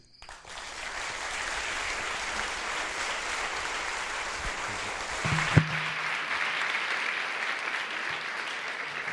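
A crowd claps loudly and steadily for several seconds, a dense wash of many hands filling the room, with a brief thump partway through and no talking.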